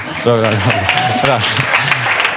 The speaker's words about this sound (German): Dankeschön, Applaus.